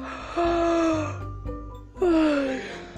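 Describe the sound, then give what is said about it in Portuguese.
A voice imitates a grandmother snoring with two drawn-out, nasal, groaning breaths about a second and a half apart. The sounds are fairly loud, with a short quiet gap between them and no other talk. “Nessa cama tinha uma avó, uma avó roncando, numa cama conchegante”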